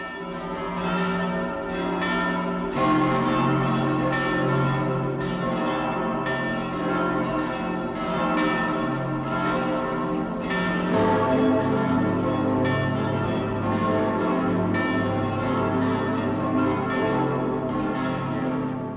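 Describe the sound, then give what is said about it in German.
Several church bells of the Frauenkirche in Munich ring together, calling people to a church service, in a continuous, overlapping peal, rich with sustained harmonic tones and steady strikes, loud throughout with no voices. “Die Glocken der Frauenkirche in München rufen heute zum ersten Male wieder zum Gottesdienst unter ihrem Dach.”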